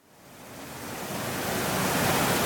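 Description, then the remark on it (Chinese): A heavy rain sound effect: rain pours down in a dense, steady hiss that swells from light drops and drizzle to a loud, full downpour within a couple of seconds, with no voices. “原本的小雨滴渐渐变成毛毛雨，然后瞬间就倾盆大雨了。”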